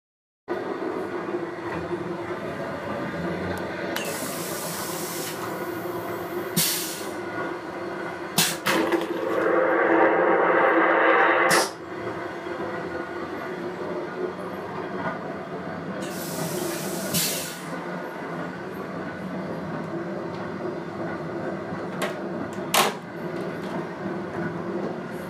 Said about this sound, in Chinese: 音频六：列车的厕所。